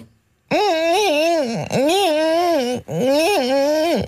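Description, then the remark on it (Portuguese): A person vocally imitates a mosquito opening a creaking door: three long, loud, wavering nasal tones separated by brief breaks. “E agora faz uma melga abrir uma porta que está a ranger.”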